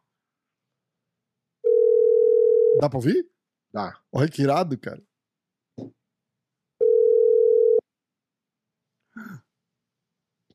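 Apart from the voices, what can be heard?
telephone call ringing tone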